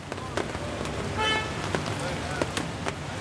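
Steady street traffic hums outside an office window on a rainy day with dense fog over the city, with one short car horn honk about midway and a few sharp knocks scattered throughout, all slightly muffled as if heard from indoors.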